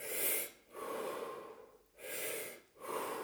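A person demonstrates the deep breathing they do all the way from a sauna to a river: long, airy audible inhales and exhales alternating in a steady rhythm, four breaths in all, with no talking.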